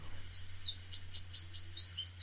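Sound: wren song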